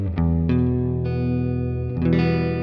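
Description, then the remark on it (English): A clean, twangy Fender electric guitar plays a 1960s riff by an American band, almost Western in style: a few struck chords that ring out and sustain, with a full low end underneath and no voices. “this very kind of uh, clean, clean Fender, almost a little bit Western style uh, sound.”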